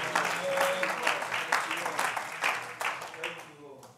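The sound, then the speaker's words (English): A church audience claps hands in sustained, dense applause before being seated, loud and steady throughout, with a brief tonal voice or shout surfacing among the clapping. “Can you clap your hands before you're seated in the house of the Lord tonight?”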